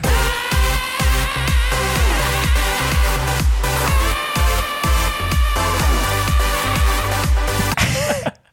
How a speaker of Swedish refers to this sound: Och … släppte en låt med …, …. Mm, den låter så här.